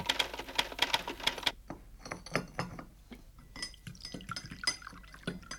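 A brisk burst of typewriter keystrokes, a dozen or so sharp, evenly spaced clacks, close and fairly loud, then softer clinking of cups and dishes with a trickle of liquid. No one speaks.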